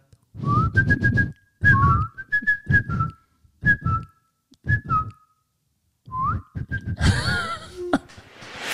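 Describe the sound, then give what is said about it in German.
A person whistles an imitation of a bird's chirping: several quick bursts of short, high, breathy tweets in a choppy rhythm, ending in a noisier rushing flourish. “Twitter, und wie macht das Vögelchen ah, Twitter.”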